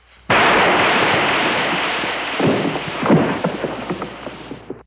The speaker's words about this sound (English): And she turns and shoots. And there's this, the, the shot, uh, sound the the the effect is like really yeah exaggerated. It kind of echoes.